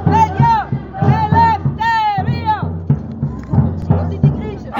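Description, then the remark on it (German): A crowd of about 400 to 500 protesters chants in unison at a Saturday demonstration against camp housing, deportation detention and deportation, opposite the Wasserturm in Mannheim, Baden-Württemberg, Germany; loud rhythmic shouted phrases repeat every second or so, with strong harmonic voices rising and falling over steady group noise. “Und dort fand am vergangenen Samstag eine Demonstration gegen Lagerunterbringung, Abschiebehaft und Abschiebung statt.”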